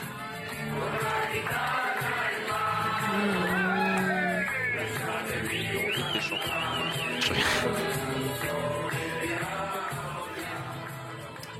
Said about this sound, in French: Et ces derniers nous ont offert euh, une petite séquence en chanson à l'arrivée de l'aéroport Lyon-Saint-Exupéry dans le bus. On écoute.